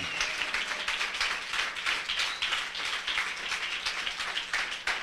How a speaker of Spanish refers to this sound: Aplauso al Señor.